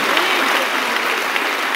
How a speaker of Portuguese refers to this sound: Mas aplauda mesmo, gente, com vontade. Isso. Glória a Deus.